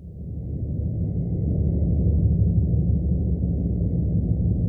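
A trawler picked up by sonar: a steady, muffled low rumble with a throbbing engine texture that fades in slightly and then holds unbroken, with a faint thin whine above it and no voices.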